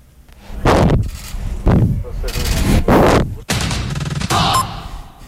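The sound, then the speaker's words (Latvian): A horse named Valūrs snorts and blows three times straight into a microphone held out by a Latvian Radio journalist, producing loud, rough, breathy blasts of noise separated by short pauses, each one distorting with a deep rumble. “Zirgs pienāca klāt, es eh, pasniedzu mikrofonu. Viņš trīs reizes tur iepūta.”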